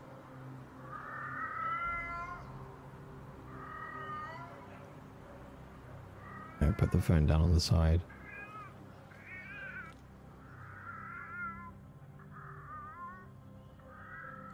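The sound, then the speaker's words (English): A black cat meows again and again somewhere in an apartment, its plaintive, wavering cries repeating every second or two, while a person speaks briefly and loudly partway through. “You hear a cat meowing. Sounds like it's coming from somewhere in the apartment.”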